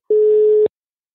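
A single steady telephone ringing tone on an outgoing call from Radio 4 to a biology professor at the University of Copenhagen, a loud, clean mid-pitched beep lasting about half a second that starts and stops abruptly, followed by silence.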